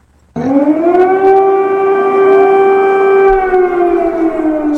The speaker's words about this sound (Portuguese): O governo chegou a acionar sirenes, informando a população sobre os bombardeios.